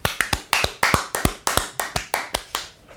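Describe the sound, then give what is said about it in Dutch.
Short burst of applause for Kingsley Ehizibue from a small group: a dozen or so sharp, crisp hand claps in a quick, slightly uneven rhythm, with no voices. “Eh, een groot applaus voor Kingsley Ehizibue.”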